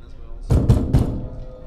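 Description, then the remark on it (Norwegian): Three dull, heavy knocks on the outside wall of a house come in quick, slightly uneven succession, right by where two people stand in the kitchen, fairly loud, with a low room hum and no talking. “Det banker på husveggen, rett ved der vi står.”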